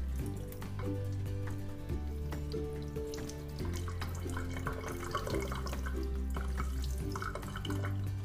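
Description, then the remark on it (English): Tap water runs steadily over someone's hands and splashes, a continuous rushing patter with small irregular spatters throughout, over a low steady hum, with no one speaking. “You can close your eyes and just feel just feel the sensations of it running on your hands”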